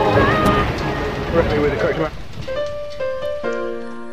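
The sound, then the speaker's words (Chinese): Steady, dense rain patters and hisses for about two seconds, then fades under a few sustained, clear musical tones that ring out one after another. “哎，又下雨了。”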